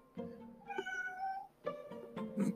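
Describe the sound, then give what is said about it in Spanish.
The speaker's cat meows twice in succession, each call long and drawn out with a whiny, tonal quality, fairly loud with no talking. “Mi gato.”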